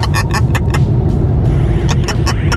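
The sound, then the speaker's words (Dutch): A parrot calls in a quick run of short, harsh squawks, a burst of several then a pause and another cluster, over a steady low rumbling background. “Papegaai? Papegaai.”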